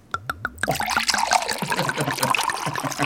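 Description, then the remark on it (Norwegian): Apple juice being poured: a few glugging bursts from the bottle at first, then a steady splashing trickle of liquid filling a glass, fairly loud and continuous with no one talking. “Oh, her kommer eplejusen. Her er eplejusen. Da skal vi høre sånn, en sånn sound effect.”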